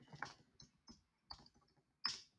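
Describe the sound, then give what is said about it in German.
Typing on a computer keyboard: a handful of crisp, irregular key clicks, fairly quiet, with one sharper keystroke near the end and no voices. “Ach, ich kann nicht mehr tippen.”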